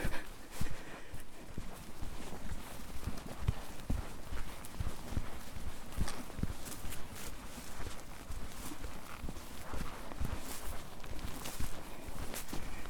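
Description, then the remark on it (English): A steady, irregular patter of many small sheep hooves as a whole line of sheep walks along a hard track, the footfalls overlapping in a continuous clatter with no voices. “Could turn out to be a long track for the sheep.”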